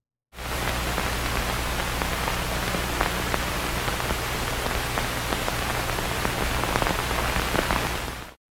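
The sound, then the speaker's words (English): Steady, even hiss fills the whole stretch, peppered with tiny scattered clicks and pops like a needle riding an old record, with a faint low hum underneath and no voices. “So it's either going to be that song or it's going to be just like tape hiss or a needle just going over a record.”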